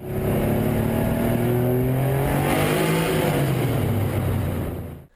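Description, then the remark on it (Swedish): A car's six-cylinder boxer engine roars loudly at high revs, its deep tone climbing and falling with strong harmonic bands, steady for about five seconds before cutting off abruptly. “liters boxen med sina sex cylindrar rosslar djupt på tomgång och vrålar gott på högre varv.”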